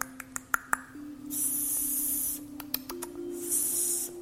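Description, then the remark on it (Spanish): A voice speaking a channeled 'light language' makes rapid tongue clicks followed by two long, sharp hissing bursts, then more clicks and another hiss, an odd non-verbal vocal sequence with no ordinary words. “Quizás tú me has escuchado a mí en mis audios, en eh, mi lenguaje particular de luz. Y suena algo como...”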